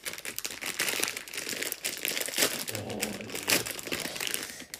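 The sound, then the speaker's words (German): Continuous crinkling of a paper wrapper being opened on Portuguese gummy candies (gummy bears, toothbrushes and dentures) from Madeira, with dense crackles and a few sharper crunches and rustles, and no talking. “Ich krieg die Sachen nicht auf, die sind zu gut verpackt. Mach du das Papier.”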